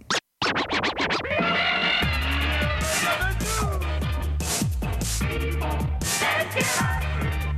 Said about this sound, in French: Au son du scratch, il sera très approximativement midi.